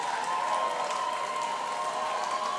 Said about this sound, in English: The guitar tech checking the guitars for the encore song.